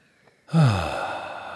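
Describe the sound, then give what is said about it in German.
A single heavy, breathy exhale lands close to the microphone after a brief near-silence, loud at first and then trailing off slowly, with a low voiced sigh-like tone at its start. “Und äh, ihr hört mich wieder atmen.”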